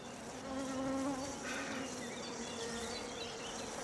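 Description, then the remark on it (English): Steady buzzing of bees humming continuously, a dense drone with slight wavering pitch and faint chirps woven in, with no voices present. “Bees really like me too.”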